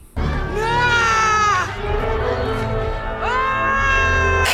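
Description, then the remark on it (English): A voice imitates the mournful funeral-style wailing cry of Zoe Saldana's Na'vi mother in the movie: two long drawn-out high-pitched wails with a wavering, sliding pitch, loud and sustained, the second rising again after a brief dip. “It got so bad that Zoe Saldana's uh, mother in the movie, the Navi mom in the movie, she had that black mama at a funeral cry.”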